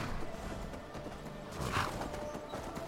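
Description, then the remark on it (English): In a video game, horse hooves clip-clop steadily, with a brief whinny rising around the middle, set against a constant ambient background hum. “we're going to leave the horse here.”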